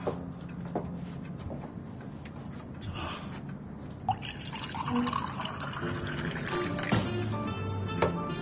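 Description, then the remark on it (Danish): Red wine pours into a glass in a steady, gurgling stream with a few drips, its pitch rising as the glass fills. No one speaks. “Jeg skal lige have lidt drik her.”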